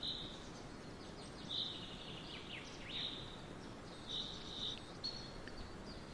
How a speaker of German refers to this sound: Im Hintergrund, du hörst es schon, gibt es ein paar Naturgeräusche.